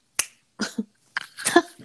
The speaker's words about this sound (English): if i say to everybody all right i'm gonna i'm gonna snap my fingers and when i snap my fingers mm-hmm. i want everybody to be happy